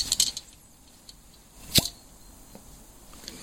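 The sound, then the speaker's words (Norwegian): A single short, soft pop of a cork being pulled from a wine bottle, fairly modest, with faint rustling and handling noise around it and no talking. “Jeg har vært borti mer potente korkåpninger.”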